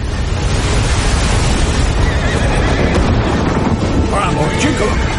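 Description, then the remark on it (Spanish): A horse neighs with a shrill, wavering whinny toward the end as a man pushes it beside a tree, nearly drowned by a loud, continuous roar of a flood of water rushing down the slope that fills the whole clip. “El hombre empuja a su caballo junto a un árbol.”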